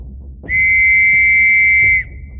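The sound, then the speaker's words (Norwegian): A single sharp whistle blast calling a lineup at 1 p.m., shrill and steady, held for about one and a half seconds before cutting off, standing loud and alone over a low background rumble. “Klokka 13 blåser det til oppstilling.”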